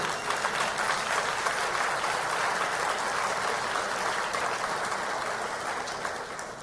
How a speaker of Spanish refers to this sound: Aplausos, seguro que sí.